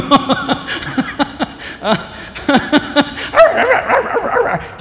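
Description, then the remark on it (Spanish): Several people yap and woof in imitation of barking dogs, a rapid scattered flurry of short voiced barks mixed with chuckles and laughter from a group. “Los perros, dicen.”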